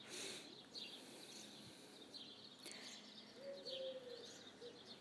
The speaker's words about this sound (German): Unsere Ohren werden umschmeichelt mit dem Gesang der Vögel.